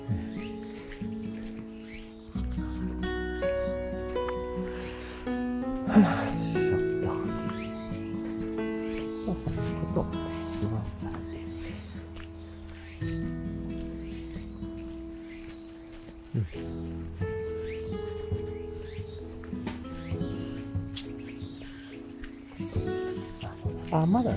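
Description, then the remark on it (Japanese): Faint, steady cicada chirring from outdoors in September, thin, running beneath a louder voice that dominates the foreground for most of the stretch. “もう9月入ってからセミナーくらだいぶ音減りましたね。ちょっとだけですね。ですけど、セミナーたちょっとだけはなってますね。”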